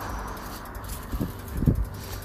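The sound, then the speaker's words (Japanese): Outdoors with steady wind-like ambience, a bicycle rolls past, a soft whirring and rattling swell that peaks briefly near the end. Nobody speaks. “うんわ自転車が通り過ぎたけど早く言えなかった”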